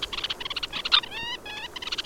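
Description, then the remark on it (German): A red-necked phalarope calling: a quick run of short, high, chattery notes with a few brief buzzy, rising twitters in the middle, steady and fairly loud with no voices. “Äh, beides sehr charmante, kleine, smarte Vögelchen, die lustige Geräusche von sich geben.”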